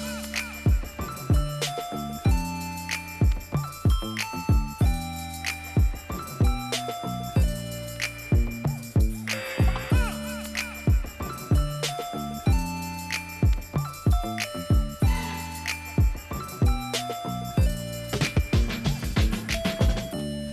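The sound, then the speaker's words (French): An upbeat pop song plays with a steady, punchy beat, bright sustained melodic tones and regular percussive hits, loud and continuous for the whole stretch. “Ben, ça décoiffe cette musique”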